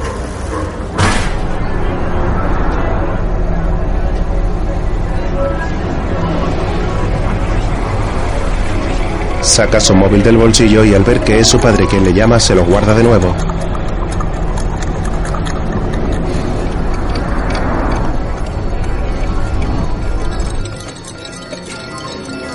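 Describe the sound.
A steady, loud low rumble of a bus interior runs throughout, with a voice speaking over it and a brief burst of bright melodic tones in the middle.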